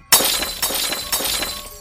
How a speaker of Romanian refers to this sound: Apoi, o sinfonie de sticlă sfărâmată se aude.